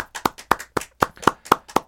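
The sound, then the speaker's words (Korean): Steady hand clapping in a studio, about eight crisp claps spaced evenly at roughly four per second, fairly loud, with quieter overlapping claps from a few people between the main beats. “거래처 사장님에게 박수까지 받았어요. 자, 우리도 줍시다.”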